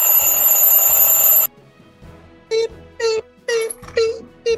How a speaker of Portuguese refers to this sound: Então, 7h50 aí, ó. Toca o despertador.